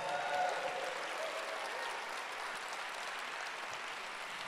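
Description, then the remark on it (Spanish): Sustained applause from a crowd giving a loud round of applause to Jesus, a dense steady patter of many hands clapping that stays fairly loud for the full few seconds, slightly fuller at the start, with no talking over it. “Yo le daré un fuerte aplauso a Jesús.”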